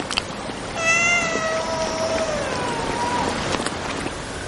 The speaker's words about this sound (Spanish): Lore toma a Peter en brazos y lo aparta dejándolo llorar sobre la hierba